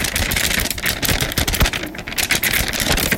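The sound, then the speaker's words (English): A sheet of paper is crinkled and rustled as a sound effect imitating wind on a phone call, a loud, continuous crackling with rapid sharp bursts that lasts the whole moment, with no voices. “This one's not gonna work as well because I need a bigger sheet of paper.”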